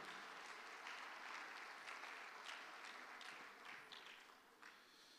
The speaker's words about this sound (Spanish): Dale palma fuerte al Rey de la Gloria, hermano.